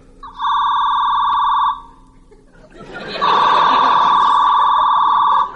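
A telephone in a house rings twice for a long-distance call, in steady electronic bursts, the first about a second long and the second longer, with chuckling and crowd noise rising just before and beneath the second ring.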